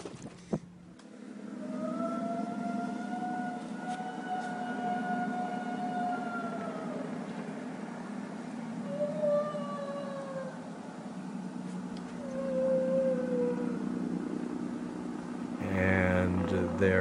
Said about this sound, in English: So instead, let's listen to a recording of La Llorona herself, something posted to YouTube, which alleges to be the actual sound of the ghost.